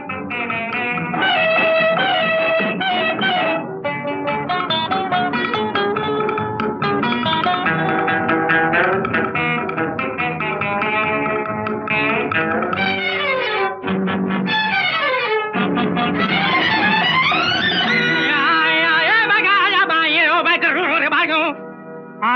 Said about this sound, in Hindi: आइए अब सुनते हैं 1962 में आई हाफ टिकट फिल्म से